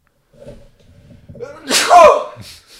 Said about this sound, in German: Gesundheit.